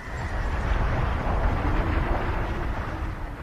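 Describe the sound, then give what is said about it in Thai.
Storm wind roars steadily and loudly over rice fields, flattening the crops: a dense rushing noise with a deep low rumble that holds at the same strength for a few seconds. No one speaks. “พายุมาเข้าในนาล้ม”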